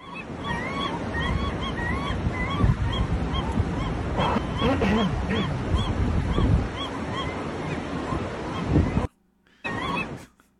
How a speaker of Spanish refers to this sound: Me encanta esa gaviota.